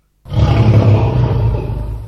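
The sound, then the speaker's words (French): A lion lets out one loud roar, a deep rumbling growl that starts abruptly after a brief silence and holds for about two seconds, with no voices. “Qu'est-ce qu'ils en pensent, les lions de Fouriane”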